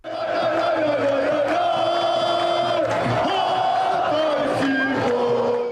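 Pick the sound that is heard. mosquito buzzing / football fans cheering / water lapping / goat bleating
football fans cheering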